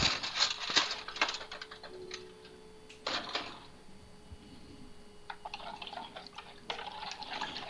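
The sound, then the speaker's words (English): A spoon stirs briskly inside a pitcher of hot water to dissolve sugar, with a steady run of light clinks and scraping taps against the sides, and no one talking. “Put in some sugar. We'll just stir this up.”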